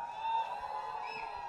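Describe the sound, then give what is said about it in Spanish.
A crowd of young people shouts and cheers together in a sustained, dense roar with a few higher whoops rising above it. “Algunos no sé por qué están gritando y alzando la mano, pero por lo menos tienen un espíritu jovial.”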